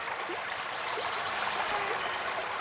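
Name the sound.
flowing river water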